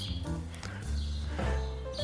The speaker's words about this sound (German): Und heute bin ich aber in Berlin, weil ich für einige Interviews hier bin. Und ich habe mir gedacht, lassen wir doch einfach mal das Vogelgezwitscher drin.